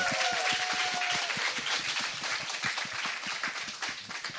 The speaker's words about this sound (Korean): 아, 여러분 박수 한번 부탁드리겠습니다.